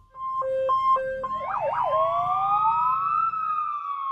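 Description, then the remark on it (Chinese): A police car siren blares loudly as the car patrols a forest, starting with a two-tone hi-lo alternation, switching briefly to a rapid warbling yelp, then settling into a long rising wail. No voices are heard. “猴子警长开着警车，带着小鸡墩墩在森林里巡逻。”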